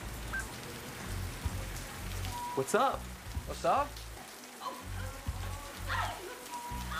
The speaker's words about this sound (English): Real rain, just to let you know, real rain. no, rain? no, no, no, not real rain, but water nonetheless.